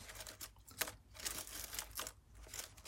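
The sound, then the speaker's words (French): Soft crinkling and crunching of dry leaves or paper sheets, made as ASMR for relaxation, in a steady series of irregular rustling bursts with brief louder crackles, no voices. “J'ai l'impression que vous aimez bien les feuilles.”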